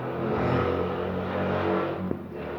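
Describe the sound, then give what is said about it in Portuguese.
A motorcycle engine roars loudly, revving with a steady rumble and shifting pitch as it goes by. The sound holds without a break, and no one speaks. “Ô oh, caralho, que hora pra baixar uma moto.”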